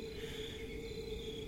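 A steady chorus of crickets chirping in a quiet nighttime forest, a continuous high trill layered over a soft low rumble of ambient background.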